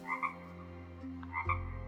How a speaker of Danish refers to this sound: Du synes en gang imellem at kunne høre det her kvæk ud foran.